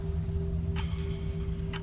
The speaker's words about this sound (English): And every time someone came looking for them, they found nothing nothing save for a ticking clock and a gently swaying pendulum.